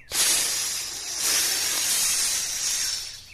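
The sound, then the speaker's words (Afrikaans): A loud, sustained hiss of a long, yellowish snake in the veld, broad and airy, swelling in a few long waves for over three seconds with no voices. “hoor die diertjies 'n harde sis gelei.”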